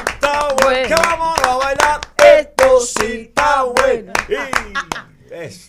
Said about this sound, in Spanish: bienvenido, te recibimos con un fuerte aplauso.